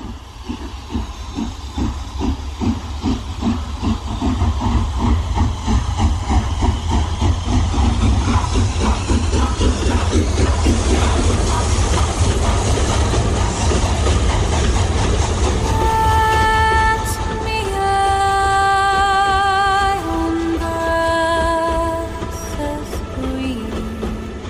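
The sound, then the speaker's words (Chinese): A green passenger steam train chugs in fast, regular beats beneath a loud, constant hiss of steam. In the final third, steady held tones step between pitches over the rumble. “冒着蒸汽的绿皮火车， 冒着蒸汽的绿皮火车，”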